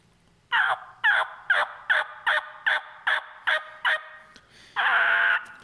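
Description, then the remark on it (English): A steady run of about nine raspy turkey yelps blown on a mouth call with air pushed from the gut, loud, evenly spaced, finishing with one longer, drawn-out note. No talking. “Um, so for me, I do bring it out of my gut, but you'll play with play with that airflow, figure out where that sound comes from, and then it's a yuck.”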